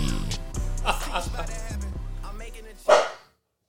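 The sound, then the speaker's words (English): A single sharp bark from a dog named Mars rings out near the end, loud, after a few seconds of busy, rhythmic background sound with a voice mixed in. “You can hear my boy Mars barking in the background.”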